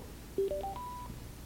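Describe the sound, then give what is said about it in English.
A short electronic chime of four quick beeps rising in pitch, a phone pairing confirmation after two buttons are pressed and held at the same time, moderately loud, ending on a held higher tone over faint background hum. “Okay, can you press and hold those two buttons at the same time and, until I say let go?”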